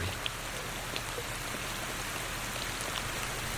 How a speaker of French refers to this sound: la bruine se transforme en forte pluie. Les nuages s'épaississent, le ciel s'assombrit.